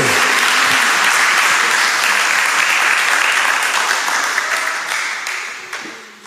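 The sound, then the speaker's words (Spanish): A crowd applauds loudly for the Lord during a sermon, a dense wash of many hands clapping together for several seconds before gradually tapering off toward the end. “Ah, dele un aplauso al Señor a ver si está de acuerdo con eso que acabo de decir.”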